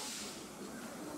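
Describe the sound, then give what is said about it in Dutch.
A steam locomotive hisses steadily, a continuous broad rush of steam venting with no breaks or pauses over its short length. “Hij sist en puft.”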